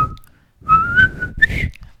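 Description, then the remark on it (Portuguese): A person whistles a short, jaunty march-like tune from an old film, a few bright sliding notes with breathy, rough undertones, loud and alone with no talking. “Eu não sei assobiar, mas eu tô tarareando.”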